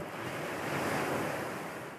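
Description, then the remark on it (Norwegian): Gentle ocean swells wash onto a chalk-white beach with clear, warm water in a steady, hissing surf that swells slightly and then eases off, with a faint breath of wind and no voices. “Dovne dønninger mot kritthvit strand, strender i verdenstoppen, vannet klart og varmt”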